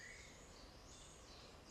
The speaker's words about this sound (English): Being surrounded with the songs of the birds and the noise of the forest.